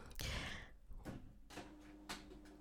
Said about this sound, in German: Mein Drucker macht Lärm. Moment kurz.